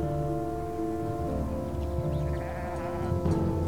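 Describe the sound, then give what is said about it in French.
A flock of sheep bleating together as it moves onto a path a few metres away, overlapping calls rising and falling continuously over a steady rumble, moderately loud, with no one speaking. “Un nouveau bêlement, puis un second, et ce fut tout un troupeau de moutons qui s'engagea sur le sentier à quelques mètres de lui.”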